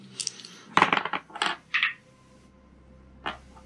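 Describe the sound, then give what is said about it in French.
Dice rolled for a combat in a tabletop role-playing game clatter across a hard table in a quick burst of sharp, bright clicks and rattles, settling after a few bounces, with one last small click a moment later. “Bah vas-y, on roule.”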